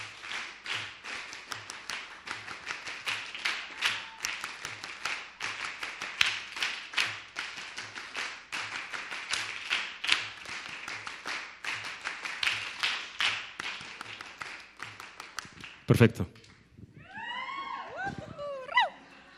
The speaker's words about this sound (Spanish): Eh, lo que vamos a hacer es ahora pasarlo a las palmas. ¿Sí? ¿Están listos? Un, dos, tres, cuá y.